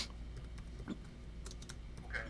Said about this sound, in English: I'm just typing up the header.